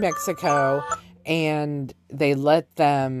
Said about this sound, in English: I'm sorry, that was my alarm. One of my alarms went off.